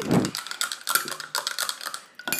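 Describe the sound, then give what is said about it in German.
An Ovomaltine chocolate malt drink made with milk being stirred, a spoon making quick, irregular clinks and scrapes against the glass for a couple of seconds, with no talking. “Ein bisschen rühren.”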